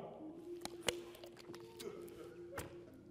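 Quiet sipping and swallowing of water: a few soft, brief wet clicks and gulps spaced irregularly, over a faint steady hum with no talking.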